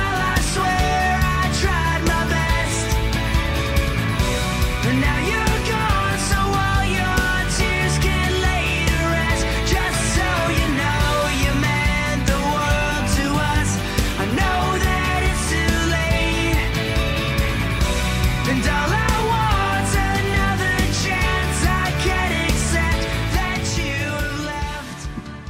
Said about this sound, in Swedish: Låten börjar visserligen lite trevande och i början så får jag faktiskt lite Oasis-vibbar.